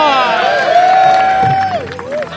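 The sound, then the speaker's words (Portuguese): A crowd applauds and cheers in a loud, steady wash of clapping, with a long piercing whistle held over the noise before it dips and fades. “A salva de palmas para o Jagonista!”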